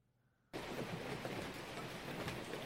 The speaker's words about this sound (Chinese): 我就觉得怎么天有点黑呢？外面好像还下雨了。